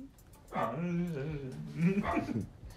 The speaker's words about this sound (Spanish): Ve, justo, justo hablando de este tipo de cosas y los perros del vecino empiezan a ladrar, güey.